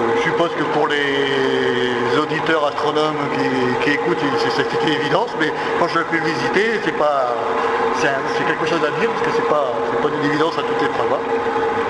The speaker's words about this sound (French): la coupole elle-même est montée sur rail. Ah. Et voilà, ça tourne, c'est magique. Donc voilà, c'est la coupole qui tourne et on la met dans toutes les directions que l'on veut.